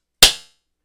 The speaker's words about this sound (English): Now I'm going to do a clap, and we're going to switch over to the fat portion, fat torching portion of the podcast.